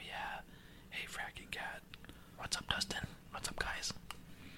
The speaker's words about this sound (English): No, that was just me whispering.